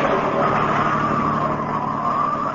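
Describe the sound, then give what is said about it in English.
A car engine drones steadily as the vehicle drives along a road, a continuous, fairly loud hum with road rumble and no pauses, heard alone without voices. “I could hardly hold the car on the road and move it.”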